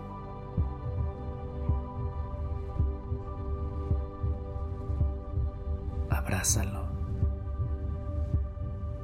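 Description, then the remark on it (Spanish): A steady, muffled heartbeat thumps in a slow repeating rhythm over a low hum, with a soft voice speaking briefly and a short breathy burst partway through. “Quédate ahí un momento y siente cinco de sus latidos.”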